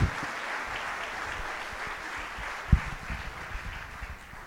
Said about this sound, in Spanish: Muy bien, un fuerte aplauso.